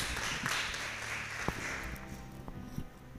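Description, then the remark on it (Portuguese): A crowd applauds the Lord after a prayer, steadily for a few seconds, a dense wash of many hands clapping at once, with a few sharper claps standing out and fading slightly toward the end. “Vamos aplaudir o Senhor porque Ele é bom.”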